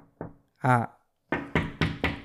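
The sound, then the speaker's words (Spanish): Four firm, evenly spaced knocks on a door, fairly loud, come right after a short vocal sound, each rap landing with a quick, sharp thud. “Y, de la manera que la estén tocando. Porque no es lo mismo que,”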